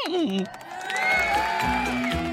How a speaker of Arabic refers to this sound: هاي أنتم ما هذا؟ ما بالكم صامتين هكذا؟ أين التصفيق والهتاف؟